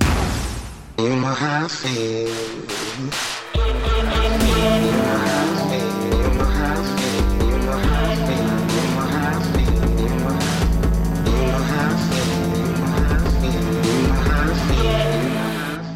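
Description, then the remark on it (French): A short theme jingle opens with a few punchy staggered hits, then settles into a full, loud groove with sustained tones over a steady beat, playing alone without any voices. “tout le monde, on porte attention au thème de la chronique”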